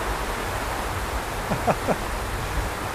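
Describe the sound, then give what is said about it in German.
Dense, steady hiss of heavy rain fills the whole stretch at an even level, with a faint, brief murmur of voices rising briefly in the middle. “Vielleicht hört ihr uns noch, also der Regen wird immer stärker”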